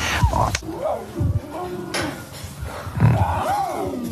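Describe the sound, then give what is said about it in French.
Lion cubs, a female and a male, growl and snarl in a series of short, rough bursts, fairly loud, with whiny rising-and-falling cries between the deeper grumbles. “Ah, trop mignon, les gros chats.”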